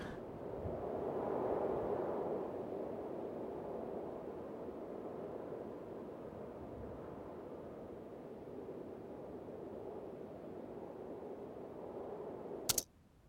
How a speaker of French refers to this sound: Ça, c'est un vent avec une couleur complètement différente. Avec la bourrasque.